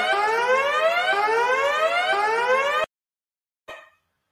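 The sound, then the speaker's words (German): A loud electronic alarm siren, played in as a joke "Haram alarm", with stacked rising sweeps repeating in a steady cycle for about three seconds, then cutting off abruptly, followed after a short silence by a brief burst of noise. “vielen geht so ein Haram-Alarm im Kopf los, den ich jetzt mal hier äh, zur Beruhigung all, aller Glaubenswächter eingespielt habe”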